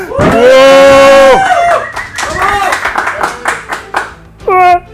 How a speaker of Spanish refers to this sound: Vale. Pues es gracioso porque ha gritado toda la gente, pero yo he gritado wow al micro muy fuerte. Entonces a lo mejor mi wow ha tapado el resto, así que.